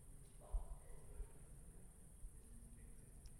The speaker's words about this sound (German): Ich finde, jetzt hätten wir es mit geilen Zirpen einfach ausklingen lassen